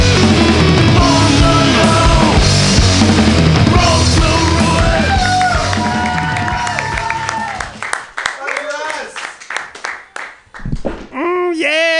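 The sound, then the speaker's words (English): An audience claps and cheers loudly and steadily for about eight seconds, with scattered shouts in the mix, then the noise dies down as someone starts talking. “Everybody clap wildly.”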